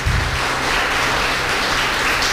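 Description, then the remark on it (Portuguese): A crowd breaks into steady applause for a man married 26 years, a dense wash of many hands clapping at once, holding an even, fairly loud level throughout with no voices standing out. “Meu Deus do céu, 26 anos de casado, merece um aplauso, não merece não, irmão?”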